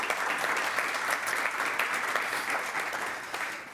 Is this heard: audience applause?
yes